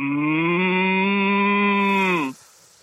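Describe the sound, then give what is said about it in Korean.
A person imitates an angry cow with one long, loud, low moo, held steady for about two seconds with a slight upward strain before cutting off abruptly. “이번에는, 아, 굉장히 화가 또 납니까? 네, 화납니다. 예, 화가 난 소.”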